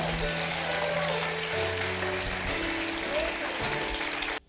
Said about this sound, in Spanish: Alguien le da un aplauso a Jesús.